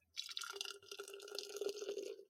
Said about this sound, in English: Well, I have a second fiddle double IPA by Fiddlehead Brewing Company, and I'm doing a live pour